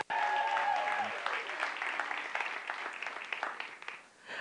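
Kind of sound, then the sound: crowd, audience applauding and cheering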